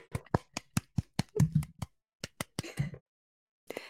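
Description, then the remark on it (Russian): A rapid series of about a dozen sharp slaps of people's hands on their own buttocks in an uneven rhythm, some landing in quick pairs, followed after a short pause by a brief rustle. “И это мы хлопаем жопками.”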